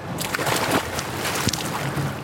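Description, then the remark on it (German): Water splashes and sloshes as someone gets into the pool at the Olympic swimming hall to swim lengths, with a burst of churning noise and a sharper splash midway, no talking. “Jetzt geht's ins Wasser!”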